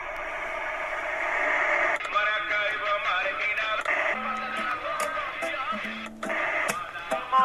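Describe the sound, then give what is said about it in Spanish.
A song, an anthem for defenders of freedom of expression from the organization Un Mundo Sin Mordaza and Amnesty International, plays at steady volume with a thin, radio-like tone, a singing voice over dense band accompaniment, with a brief dip near the end before the music swells again. “que es un himno para los defensores de la libertad de expresión”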